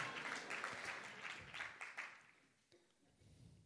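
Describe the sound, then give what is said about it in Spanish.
An audience applauds the Lord during a church sermon with dense, crackling clapping that is strongest at first, then thins and fades toward a quieter murmur by the end. “Hay alguien que le dé un aplauso al Señor esta mañana y que diga, Señor, tócame con tu palabra.”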